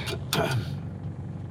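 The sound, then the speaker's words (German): A steady low rumble of a car driving, heard from inside the cabin, with a brief burst of voice near the start before the road hum continues alone. “Wir sitzen seit heute Morgen im Auto.”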